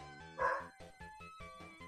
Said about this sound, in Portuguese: Tá aí, ó. Cachorro tá latindo no fundo. Né?